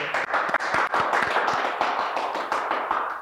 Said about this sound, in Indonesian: Oke, okay, tepuk dulu.